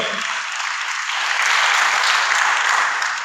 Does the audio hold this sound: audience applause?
yes